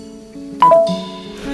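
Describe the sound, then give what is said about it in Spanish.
A WhatsApp message notification chimes once on a phone, a quick bright two-note ping that stands out clearly over a low steady background hum. “Estamos charlando con Liliana Herrero, que recién me sonó el WhatsApp porque me dice lo logramos.”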